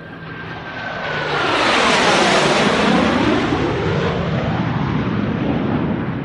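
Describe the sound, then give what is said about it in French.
A loud airplane engine roars, swelling within the first two seconds into a sustained, rushing drone like a plane passing overhead, with no one speaking, as a passenger takes a flight from Spain to Iceland. “Donc finalement arrive le 31, il est temps de prendre l'avion.”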